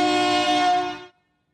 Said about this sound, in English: kind of the train horn. I'm gonna get the. We're gonna get them a new horn. We, we will record one out in like in the wild,